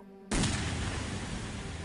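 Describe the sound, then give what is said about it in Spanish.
A single loud gunshot from a bedroom cracks out suddenly after a brief quiet moment, followed by a dense, lingering rumble of echo that slowly fades. No voices are heard. “esta mañana escuché un disparo sonoro desde la habitación”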